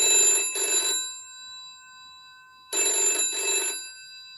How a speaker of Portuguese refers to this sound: seria o principal toque telefônico durante quase, sei lá, cinco décadas iniciais do telefone, que era aquele telefone de disco que fazia o, o, o, o sinal tocando.